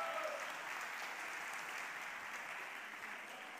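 An audience applauds steadily for a man called to the front by the preacher, a dense wash of many hands clapping at an even, fairly loud level that tapers slightly toward the end, with no voices standing out.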